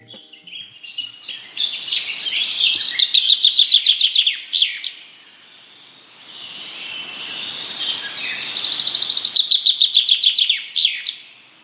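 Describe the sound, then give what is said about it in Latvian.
Two bursts of common chaffinch song, each a bright accelerating trill of repeated notes ending in a flourish, sung loud with a short pause between, no voices present. “ieklausīs, ieklausīsimies, piemēram, žubītes dziesmās.”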